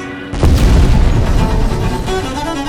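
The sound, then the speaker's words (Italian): A bomb falls at night on a Ferrino warehouse full of flammable material in Turin and explodes with a sudden, heavy boom, followed by a loud, sustained low rumble and crackling debris that fades only slightly over the following seconds. “Una bomba piomba esattamente su un magazzino della Ferrino.”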